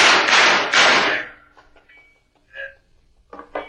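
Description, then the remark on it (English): A few loud, heavy knocks on a back door land close together at the start, then fade into quiet with faint, brief voice-like sounds afterward. “It is the back door, Sam.”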